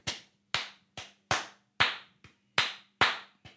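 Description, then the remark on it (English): Sharp, crisp hand claps beat out the syncopated three-beat tresillo rhythm of reggaeton, repeating twice, with a faint low hum underneath and no talking. “The sort of signature three beat tresillo rhythm of reggaeton, which goes a little bit like,”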